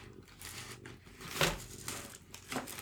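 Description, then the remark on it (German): A cat, Chewie, paws into sandpaper, plastic bags and model-building supplies on a desk: dry, papery crinkling and rustling in irregular bursts with one sharper, louder crunch midway, over a low steady hum, with no voices. “Ja, nur dass er hier so Tüten und Zeug und Modellbaukram hat und dann haut er halt einfach seine Pfoten mitten rein”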